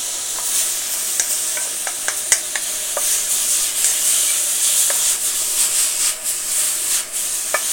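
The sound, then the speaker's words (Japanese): Food sizzles steadily in a hot wok while a utensil stirs and scrapes through it, producing scattered sharp clicks and taps over the constant hissing fry, with no talking. “こういうものをさその混ぜたりとかするのに中華鍋は便利だよね中華鍋ってパラボラみたいになってるからさ”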